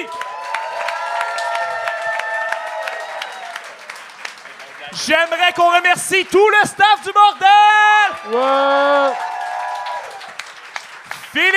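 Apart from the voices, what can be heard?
audience applause and cheering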